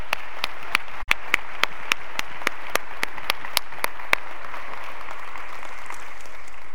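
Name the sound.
audience applauding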